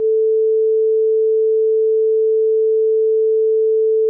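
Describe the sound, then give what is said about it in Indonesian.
A steady censor bleep hiding the name of a former workplace: one flat, mid-pitched electronic tone holds at constant loudness for about four seconds, alone, with no talking underneath, then cuts off abruptly. “ya nggak boleh sebut kayaknya nanti kita sensor”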